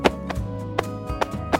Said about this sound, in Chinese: 她用最快的速度把黑板沟槽的粉擦干净，再用力的把板擦拿到走廊外的阳台拍打。